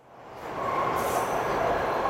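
A crowded metro train rumbles along steadily, its broad mechanical roar rising from quiet to a sustained loud level with a faint high-pitched squeal riding on top. No voices are heard.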